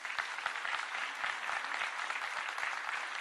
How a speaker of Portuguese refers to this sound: Dá uma salva de palmas a Jesus.